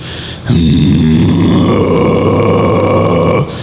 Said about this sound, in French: On dirait un très gros rot, je m'excuse.